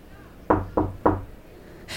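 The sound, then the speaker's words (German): Three firm, evenly spaced, fairly loud knocks on a door, followed by quiet and a brief soft hiss at the very end. No one speaks. “Klopf, klopf”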